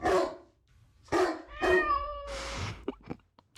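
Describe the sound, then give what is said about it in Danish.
A dog barks three times in short, sharp bursts, then a drawn-out meowing cry and a rough, noisy yowl follow, played as a sound effect, with no one talking. “Jeg har faktisk en lille lyd på det.”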